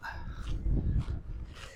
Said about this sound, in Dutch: Nou, agressieve hondjes.